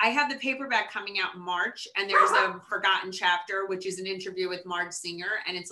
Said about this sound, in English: oh my god i'm so sorry my dog is barking